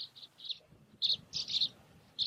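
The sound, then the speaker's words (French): Calls of sand martins and European bee-eaters from colonies nesting in an erosion cliff with about 200 dug nests, on the Allier river at île des Cailloux: bursts of short, bright chirps repeated in quick clusters with brief pauses, clear over a low background rumble, with no talking. “on a des colonies d'hirondelles de rivage et de guépiers d'Europe”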